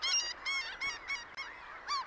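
A flock of seagulls calling in quick overlapping cries, harsh and nasal, several birds at once with a burst of squawks near the end, loud.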